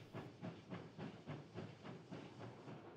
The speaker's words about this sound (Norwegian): Klokka 07.45 tøffer tog 72 av gårde mot hovedstaden. En tur som skal ta om lag fem timer med hurtigtoget.